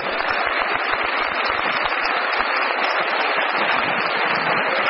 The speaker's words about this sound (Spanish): vamos a gritar el nombre del diamante para que todos sean reconocidos esta noche, esta tarde, y les vamos a dar un aplauso, ¿vale? Bueno, una, dos y tres. Bien, un gran aplauso.